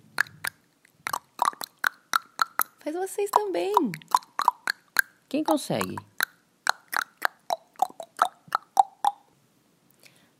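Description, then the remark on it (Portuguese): A quick, rhythmic run of hollow tongue clicks with shifting pitch, imitating wooden marimba notes, clear. A voice breaks in briefly twice between the clicks. “Dá pra gente imitar o som da marimba? estalando a língua.”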